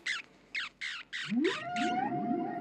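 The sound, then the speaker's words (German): A series of six sharp, downward-sweeping bat calls pulse at a steady rhythm, fairly loud. Midway, a lower, drawn-out rising and gliding tonal call enters and overlaps the last calls. “Es gibt Tierarten, die Zoologen sogar bevorzugt akustisch erfassen. Fledermäuse etwa.”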